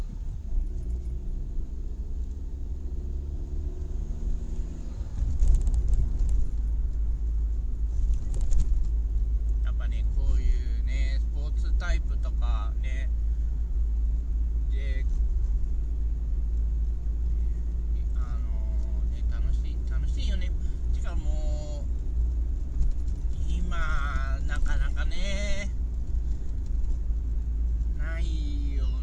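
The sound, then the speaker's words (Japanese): A steady low engine rumble fills the interior of a moving car, the driver's own, with a droning, shifting engine tone in the first few seconds and people talking over the constant hum. “やった時はもう自分の、このこいつで、走りました。”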